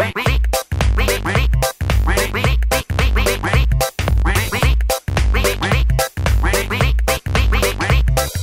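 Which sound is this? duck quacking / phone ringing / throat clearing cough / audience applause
duck quacking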